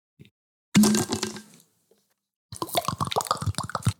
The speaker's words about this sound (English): What are you doing? I was drinking water.